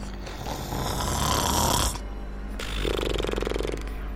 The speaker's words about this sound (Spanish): en el momento en que lo hizo, la serpiente cerró sus ojos y lentamente cayó sobre la arena. Cerrando su ala, se acurrucó y comenzó a roncar.